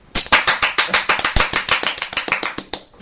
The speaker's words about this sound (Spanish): ¡Un Un aplauso! aplauso para nosotros, para nuestro mismísimo.